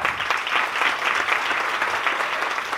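An audience claps steadily for a few seconds for a man in the audience, a dense, even wash of many hands with no voices standing out above it.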